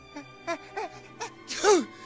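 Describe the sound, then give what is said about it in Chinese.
A voice acts out a wolf's big sneeze: four short, breathy, rising "ah" build-ups, then one loud, explosive burst with a hissy rush that trails off downward in pitch. “我打了一个好大的喷嚏。”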